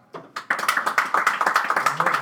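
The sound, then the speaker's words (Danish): A live audience breaks into applause when asked how many miss Peter Dinklage as Ghost, many hands clapping in a quick, dense patter that starts sparse and builds to steady, moderately loud clapping. “Lad os spørge publikum. Er der, hvor mange savner Peter Dinklage som ghost? Klap.”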